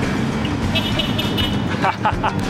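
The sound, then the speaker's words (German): A city bus in Berlin rumbles past, its heavy engine droning low while a couple of short horn toots ring out over the street noise. “Jetzt lassen wir mal den, den Bus vor”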